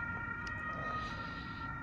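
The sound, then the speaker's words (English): An ambulance siren sounds as the ambulance goes by at a river in Tübingen, in steady, sustained tones over a low rumble of road noise, holding a fairly even, moderate loudness from start to finish with no talking. “we are in the middle of the uh, the Rooker, which is a river that runs through Tubingen, and I think we'll just enjoy the uh, the doppel effect of of the uh, ambulance that's going by.”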